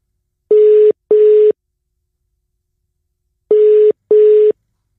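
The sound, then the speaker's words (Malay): A telephone ringback tone sounds twice as a call is placed, each ring a quick pair of steady, mid-pitched buzzing beeps separated by a long silent pause. No one speaks. “jom kita dengarkan kita call dia”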